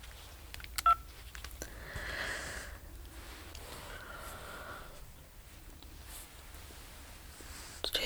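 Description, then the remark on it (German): Several short electronic tones from a phone keypad being dialed to call the police, brief steady beeps at a mid pitch spaced unevenly over quiet background, with a few small clicks and no speech. “Aber jetzt muss ich noch die Polizei anrufen.”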